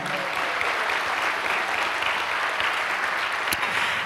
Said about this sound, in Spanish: ¿Cuántos dan un aplauso a Dios por eso, amados hermanos?